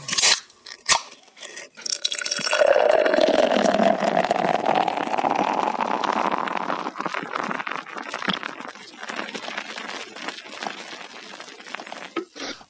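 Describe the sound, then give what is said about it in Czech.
A short transition jingle with a gritty, crackling texture that swells into a sweeping whoosh early on, then settles into a steady, busy rumble for the remainder. No one speaks over it. “Hmm, hele, udělám moment, udělám předěl malej.”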